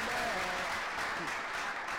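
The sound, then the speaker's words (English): A steady burst of applause from a group, dense clapping filling the whole moment at a fairly even loudness, with faint voices mixed in underneath. “Can we get a round of applause for a hey, Welcome back, welcome back, welcome”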